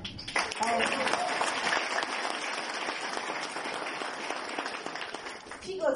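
An audience claps steadily for several seconds, a dense, loud patter of many hands with no break, swelling slightly at the end.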